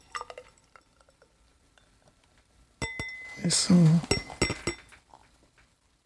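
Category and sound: food or drink, beer poured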